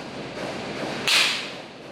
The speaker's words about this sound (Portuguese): Neste vídeo, um traficante prepara o ataque aos policiais. Aqui, um tiro é disparado quando o blindado passa na rua.